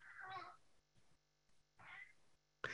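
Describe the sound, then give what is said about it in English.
A male pet cat meows twice, each call drawn out and wavering, with a short pause between them and a brief sharp noise right at the end. No one speaks. “If you hear him meowing, it's my cat.”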